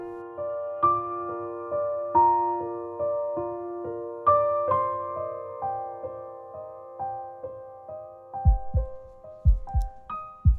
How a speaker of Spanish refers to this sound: El latido de tu corazón la fluidez de tu respiración, el recorrido constante de tu circulación sanguínea son un concierto del cual muchas veces no nos damos cuenta.